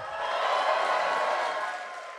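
An audience breaks into a steady wash of applause, answering by applause who lives in the city, dense, even clapping that holds for a couple of seconds before easing slightly at the end. No one speaks over it.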